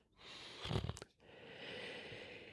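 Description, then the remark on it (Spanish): A deep, audible breath drawn in through the nose: a short snuffly burst, then a long, steady airy inhale, with no talking. “Vamos a hacer una respiración profunda por la nariz. Inhala.”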